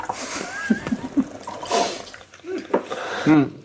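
Liquid splashes and gurgles as a drink is poured into a glass in short uneven bursts, with people murmuring and shifting around it.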